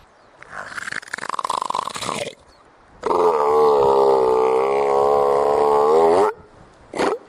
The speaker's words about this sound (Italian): Per le prime sei settimane di vita i cuccioli non si separano mai dalla madre, che sorveglia che non ci siano guai in vista. Quando ce ne sono, le foche monache emettono una specie di muggito.